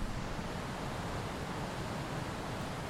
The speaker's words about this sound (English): And so I'm in a uh, isolated uh, campsite right uh, at the foot of a uh, roaring uh, mountain stream. You can hear it.